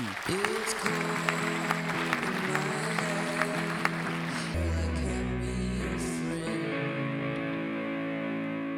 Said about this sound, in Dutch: Nog een hard applaus voor uh, ….